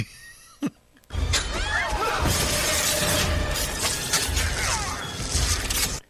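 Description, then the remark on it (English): A faint click, then a sudden loud, sustained rattling whir as a fishing rod is cast and its line spins out, with scratchy sweeping squeaks throughout and a soft splat near the end as a marshmallow on the end of the line hits a wall. “and then they're capturing the marshmallow at the end of the fishing yeah, rod, sticking splatting against the wall.”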